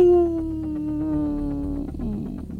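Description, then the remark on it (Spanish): A person imitates a Labrador dog's howl: one long, loud, wavering note that slowly sinks in pitch and trails into a rougher, breathier ending, with no talking. “Un lobito labrador.”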